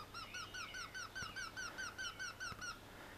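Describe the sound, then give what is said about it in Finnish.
A Eurasian wryneck's loud call: a rapid series of a dozen or so ringing, nasal notes repeated evenly for about three seconds, clear, with faint background noise. “Käenpiika ei rummuttele. Se ilmoittaa itsestään kiikittämällä kovaäänisesti.”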